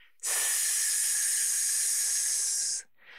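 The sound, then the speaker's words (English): A steady, sustained hiss of breath forced out through the teeth as the abdominal muscles are pulled in to push the air out, lasting a few seconds, then cutting off abruptly with no talking. “And as you're pushing the air out, you're going to make a hissing sound.”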